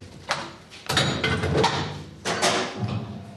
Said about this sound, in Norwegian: på Oljeskiftekspressen balanserer dekk